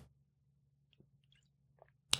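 food or drink, sipping water

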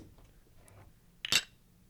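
household object, beer glasses clinking

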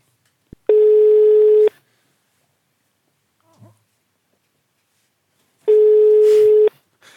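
signal or alarm, telephone ringing tone

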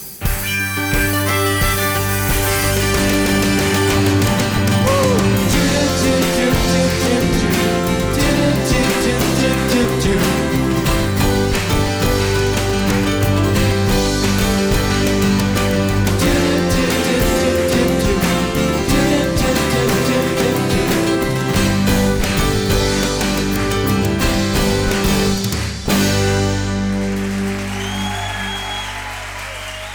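sound effect, song playing

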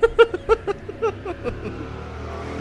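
vehicle, motorcycle passing by outside

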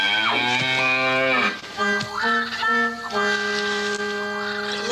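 animal, cow mooing

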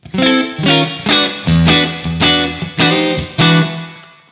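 sound effect, guitar through reverb pedal

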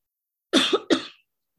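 human body sound, coughing fit

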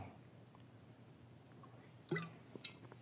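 food or drink, sipping sparkling water

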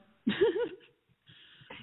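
human body sound, throat clearing

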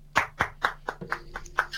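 crowd, applause

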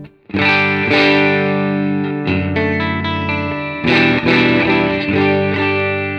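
electric guitar

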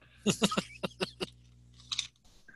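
food or drink, chewing crunchy crackers

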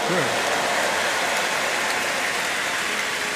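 crowd, audience applause

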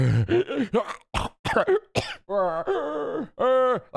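human body sound, coughing and throat clearing

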